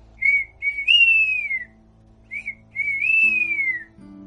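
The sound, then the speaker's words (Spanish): A high, clear flute call like a nightjar's, played twice: each phrase opens with short chirping notes, then a long warbling tone that slides downward. No talking. “Se la llevó a los labios, sopló y produjo un trino parecido al de un chotacabras.”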